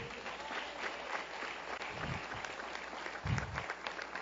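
An audience applauds steadily, a dense wash of many hands clapping throughout, with a couple of brief low thumps and no clear speech over it.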